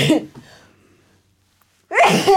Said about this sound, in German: Und ausgerechnet jetzt muss ich niesen. Warte.